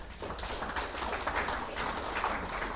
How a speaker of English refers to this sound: Said, I never made a difference, but you told me to come on, give the Lord a hand clap on that.